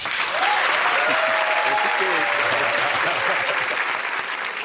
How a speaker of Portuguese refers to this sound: Quem ficou feliz, aplaude.